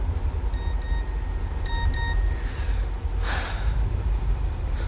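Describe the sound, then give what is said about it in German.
A mobile phone in a pocket signals an incoming SMS text message with two pairs of short, bright electronic beeps over the steady low rumble of a moving taxi, followed by a brief breathy burst. “In diesem Moment surrte Peters Handy in Bobs Tasche.”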